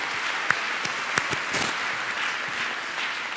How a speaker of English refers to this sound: Oh, give him a give him a clap offering right now. Give it to him.